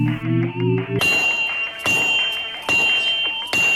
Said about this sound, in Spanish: con un martillazo de la forja,